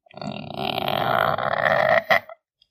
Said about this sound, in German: Da plötzlich hörte sie die Türe hinter sich knarzen.